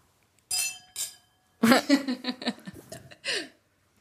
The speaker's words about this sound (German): Stoßen wir kurz an. Schön, Prost. dass ihr da seid. Schön, dass wir alle da sind.